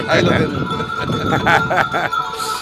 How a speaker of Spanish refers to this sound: un ganado de ovejas